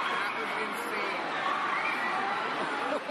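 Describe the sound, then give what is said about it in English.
A dense, noisy crowd of Black Friday shoppers roars continuously with overlapping shouts and excited chatter, a loud, steady din of many people surging forward together to get discounted TVs, knocking people down. “This is to get a TV $50 cheaper than normal. Knocking people down, people getting trampled.”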